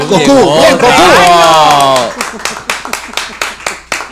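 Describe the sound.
Loud overlapping voices and cheering give way to scattered audience applause, a few hands clapping sharply and unevenly for a couple of seconds as the noise dies down.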